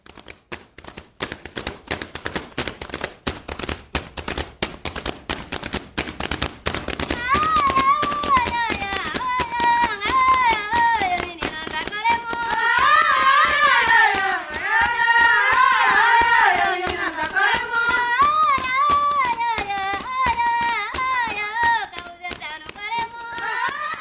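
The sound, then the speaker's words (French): Batuco from the island of Santiago, Cape Verde, recorded at the 7th Festival de l'Imaginaire in Paris in 2003: dense, steady hand-clapping and percussive slaps drive a fast rhythm, soon joined by a lead female voice and a chorus of singers answering in call-and-response. “Alors vous venez d'entendre le batuco de l'île de Santiago du Cap Vert, enregistré lors du 7e Festival de l'Imaginaire à Paris en 2003.”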